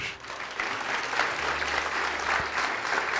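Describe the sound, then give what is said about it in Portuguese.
Steady applause from an audience applauding the Lord during a sermon fills the whole stretch, a dense, crackling wash of many hands clapping at a fairly loud, even level, with a low hum underneath and no voices. “E vamos aplaudir ao Senhor.”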